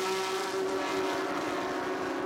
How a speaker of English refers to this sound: and he's pulled out another half a second, one and a half seconds, and a train of Porsche 992 Carrera Cup cars in behind, following through.